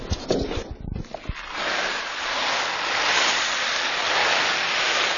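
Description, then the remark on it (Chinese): A rain sound effect made by rolling soybeans in a small winnowing basket: a few soft knocks at first, then a steady, dense rushing patter like a downpour that continues evenly to the end, with no talking. “哦，下雨就是用这个黄豆在这个，在这个小簸箕里，然后接着就说这下雨的声音啊。”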